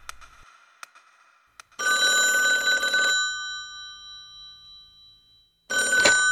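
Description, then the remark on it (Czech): An old-style telephone bell rings loudly in two bursts, a long trill followed by a pause and a second ring starting, preceded by a few faint clicks; a call from the VB police department in Žatec, on Sunday 8 August 1965 at 11 in the morning. “Já volám ohledně toho vašeho dotazu”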